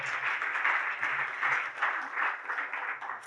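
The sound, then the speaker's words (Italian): An audience claps steadily for a few seconds, a dense, crackling wash of many hands that stays fairly even in loudness, swelling slightly in waves without stopping. “Ve l'aspetto l'applauso, va bene.”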